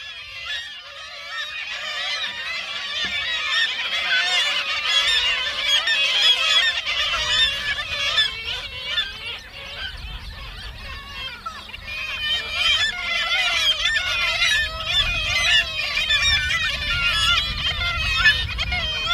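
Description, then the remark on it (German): A dense, continuous chorus of several thousand breeding pairs of kittiwakes calling at once while nesting on the windowsills of abandoned buildings in Pyramiden in summer, overlapping shrill cries filling the whole stretch, loud, with a low rumble beneath and no voices. “was ihr in den kommenden Sekunden hört, sind mehrere tausend Brutpaare von 13 Möwen, die sich hauptsächlich auf den Fensterbänken der verlassenen Gebäude jeden Sommer zum Nisten niederlassen.”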